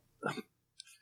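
A single sneeze: a short voiced build-up followed a moment later by a sharp, hissy burst, with nothing else sounding around it.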